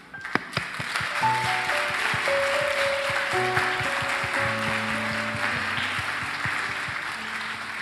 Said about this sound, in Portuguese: Sabe o que você merece? Você merece um beijo. Mas você, além de um beijo, merece uma salva de palmas da pessoa que está do seu lado.